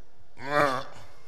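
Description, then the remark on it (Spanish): One short, displeased groan from a single voice, a brief mock moan of discontent that swells and fades in about half a second, moderately loud, with no words. “En el diccionario literalmente dice hacer ruidos de descontento.”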